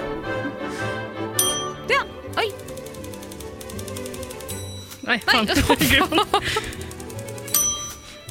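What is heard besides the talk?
bell ringing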